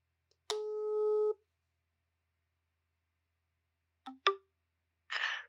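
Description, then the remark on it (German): A single steady ringback tone of an outgoing phone call sounds for under a second, followed by silence, then a couple of sharp clicks and a brief burst of hiss as the line connects. “Ja, wir rufen ihn mal an.”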